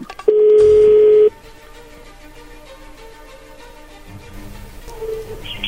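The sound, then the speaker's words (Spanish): A telephone number being dialed to call a woman: one loud, steady electronic phone tone holds for about a second, then gives way to a faint low hum and quiet line noise with no one talking. “Él le va a llamar, no haga ruido.”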